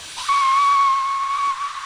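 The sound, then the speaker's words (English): A person whistles one long, loud, steady note for just over a second, slightly breathy, imitating a sharp whistle blast, with no talking. “Like right in my face, like a whistle.”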